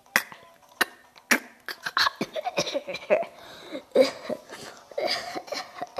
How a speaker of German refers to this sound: äh, übrigens, das Husten war gerade gefaked.